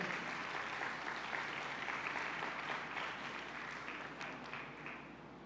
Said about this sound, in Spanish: Ahora date otro fuerte aplauso a ti que...